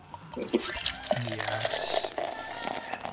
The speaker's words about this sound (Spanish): A ver, espérame, déjame destapar mi chela.